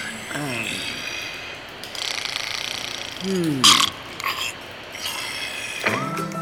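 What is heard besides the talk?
snoring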